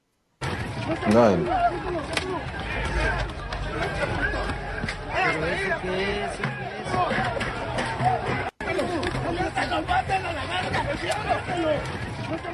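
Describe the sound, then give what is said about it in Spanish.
A dense crowd of Monterrey football fans murmurs and shouts continuously before a match, many overlapping voices forming a loud hubbub with occasional raised cries. “Bueno, uy, vean, esto, se esto fue antes del partido. Y estos son hinchas de Monterrey, desafortunadamente, ¿no?”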